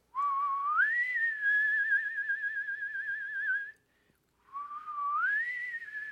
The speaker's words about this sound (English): That's my creepy whistle.